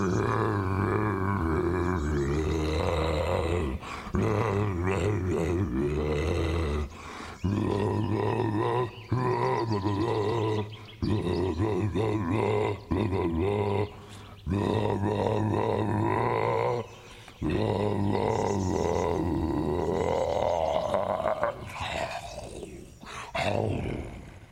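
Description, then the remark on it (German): A loud, growling roar carries a recognizable tune, a spring song, like a lion bellowing it in long sustained phrases broken by short pauses; it sounds like a voice imitating a lion's roar. “Ja, gut gebrüllt, Löwe.”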